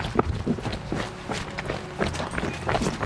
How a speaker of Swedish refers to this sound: Men eh, vi joggar lite då? Men vi joggar lite då. Ja.